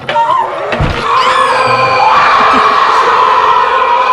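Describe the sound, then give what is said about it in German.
Bert Klock's screaming alarm clock goes off loudly and continuously, its shrill, wailing tones rising and warbling for several seconds without pause. Nobody speaks over it. “Bert Klock hatte einen schreienden Wecker.”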